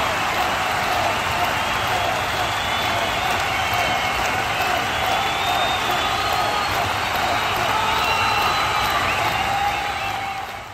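A large crowd at the Colosseum roars, cheers and chants "Caesar" continuously, a dense wall of many voices that stays loud and steady throughout, like a packed arena in full excitement.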